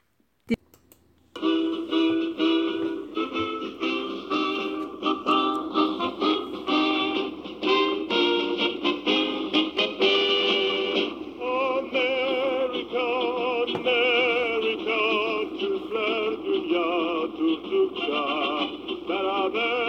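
An old, scratchy 1954 recording of a man singing a song about the warm relations between America and Turkey, with harmonic vocal lines over a narrow, tinny band and a steady hiss, starting after a brief click and continuing throughout.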